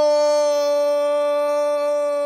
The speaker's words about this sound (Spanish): ¡Wow! Ese es el grito de gol más largo que he escuchado.